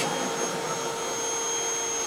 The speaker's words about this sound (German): Da musst du einen Podcast aufnehmen und dann geht der Staubsaugerroboter los. Weg, weg.